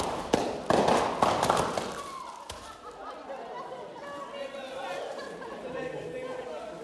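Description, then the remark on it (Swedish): An audience in an auditorium blows up paper bags and pops them in unison: a quick, irregular volley of sharp bangs over loud murmuring, then the popping stops and the crowd keeps chattering. “Och hur, hur, hur, låter det när en aula unisont förstör, eh, blåser upp eh, papperspåsar och, Aha, och eh, smäller?”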